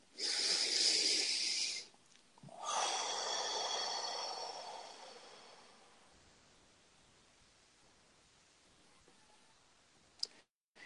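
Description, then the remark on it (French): A deep breath with no talking: a strong, airy inhale of about two seconds, a brief pause, then a longer rushing exhale that gradually fades to quiet. “Une respiration.”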